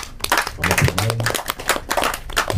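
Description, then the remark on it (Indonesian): An audience claps steadily for a few seconds for a theater group after a monologue performance, a dense patter of many hands at moderate loudness, with a faint voice or hum briefly showing beneath the applause. “mohon maaf salut terima kasih uh, kita beri tepuk tangan sekali lagi”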